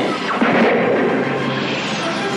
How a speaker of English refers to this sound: Wow, there's a lot of explosions in that, isn't there? Not like um, and screaming.